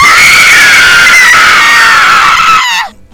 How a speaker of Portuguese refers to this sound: Sabe aquela, aqueles gritos de filme de terror de mulher? Nossa. Nossa, mano.